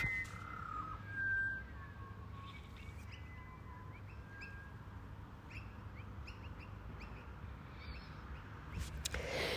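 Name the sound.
bird singing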